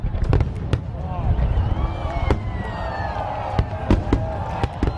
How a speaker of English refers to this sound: With the 4th of July, there's a good chance you'll be in an area where fireworks go off. The loud booms and explosions of fireworks can be terrifying.